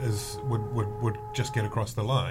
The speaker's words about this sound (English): Sorry about that drilling, folks. Yes. Um, that's a rival it's podcast. It's the dentist. it's the dentist underneath trying to drill up to get some slushies.